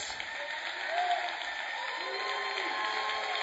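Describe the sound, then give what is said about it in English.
A church audience claps for the Lord, a dense wash of many hands applauding at once, sustained and fairly loud for the whole stretch, with faint voices murmuring underneath. “So can you all give the Lord a hand clap”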